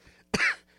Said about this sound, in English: Sorry about that. I just had a lot of stuff in my throat today for some reason. And uh, just one of those things. You got to deal with it. And I don't want to be clearing my throat in your ear constantly. So excuse me just a second.